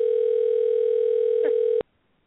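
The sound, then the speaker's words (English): A steady, loud telephone dial tone hums continuously for almost two seconds while a call is being placed, with a brief click partway through, then cuts off abruptly into near silence. “Hey, we're calling somebody.”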